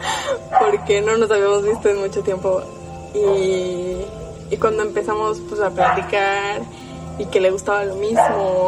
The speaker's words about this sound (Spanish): perdón el perro que no se calla